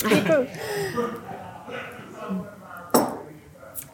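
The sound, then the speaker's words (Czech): Glasses clink together in a toast, one sharp, bright clink standing out near the end with a fainter tap after it, while people talk and murmur in the background. “Tak aspoň přiťuknout. Tak na zdraví.”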